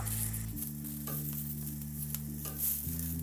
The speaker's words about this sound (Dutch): Ja, zeker hey, we, we, hebben hier de grill aanstaan. Ja. Ik heb boontjes. Ja, die hebben we geolied.